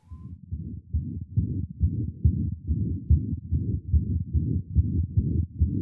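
A steady heartbeat heard through a stethoscope, low muffled thumps repeating in an even rhythm, fairly loud, with a soft whooshing between beats and no talking.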